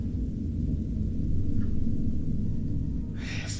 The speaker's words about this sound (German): über uns gerade ein Flugzeug mhm. fliegt